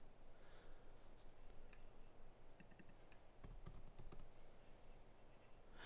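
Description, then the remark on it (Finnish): Quick, irregular clicks of keys being pressed on a computer keyboard as someone types a question to an AI, steady over a soft background hiss, with no one speaking. “Joo, mä en pysty yhtä aikaa puhua ja kirjoittaa, koska Joo.”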